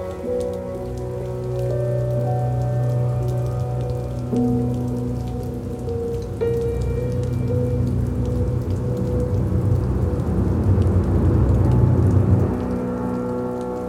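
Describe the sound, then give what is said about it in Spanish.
Steady rain pattering on the ground throughout, mixed with sustained low musical tones and a deep rumble that swells louder near the end before easing off. No one speaks. “Cuando la lluvia rozó el suelo, ambos habían desaparecido para siempre.”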